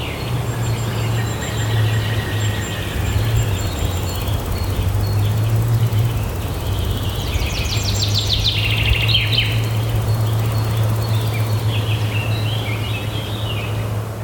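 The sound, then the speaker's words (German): Several birds call and chirp in a forest with flies and small creatures about, high trills and whistles scattered over a steady low hum and a constant wash of ambient background noise. “Akustisch ist hier schönes Walz, Fliegen, Tierchen, Vögel, manchmal so ganz aus der Ferne irgendwelche Autos, wenn man den Gain an seinem Aufnahmegerät stark hochdreht.”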